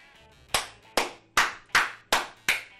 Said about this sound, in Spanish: ¿Sabes por qué te aplaudo? Porque por primera vez en casi 70 capítulos no te paraste en el medio.